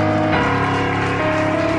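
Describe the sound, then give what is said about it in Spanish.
A standing church audience applauds loudly and steadily for the church's servants who work day and night, a dense, continuous patter of many hands clapping throughout, with sustained musical notes ringing underneath. “Póngase de pie, denle fuerte el aplauso a los siervos que trabajan día y noche.”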